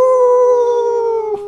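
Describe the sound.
A person imitates the wolf howls heard every night on the grassland with a single sustained "ooo" cry, steady and fairly high-pitched, drifting slightly lower over about a second before breaking off abruptly.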